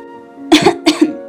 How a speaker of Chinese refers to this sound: 沃尔特不停地咳嗽。这会儿，他的床不偏不倚地搁在了一根巨大烟囱的边沿上，空气中充满烟雾，熏得他嗓子刺痛，眼睛发痒。